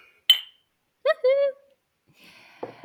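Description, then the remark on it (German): A single bright clink of glasses in a toast rings out, followed by short voiced exclamations of "Prost!" and a bit of shuffling noise near the end. “Wir freuen uns schon richtig doll und dafür werden wir als erstes einmal anstoßen. Prost! Prost!”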